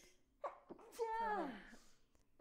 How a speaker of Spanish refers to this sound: ¡Salud! O luego pones el conteo de los estornudos.